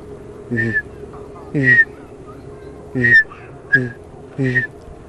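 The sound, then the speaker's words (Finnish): A person imitates a Eurasian bullfinch call by whistling while voicing a sound at the lips at the same time: five soft, piping whistled notes, each with a slight buzzy voiced undertone, spaced unevenly over a few seconds against a faint background hum. “Eli siis punatulkku.”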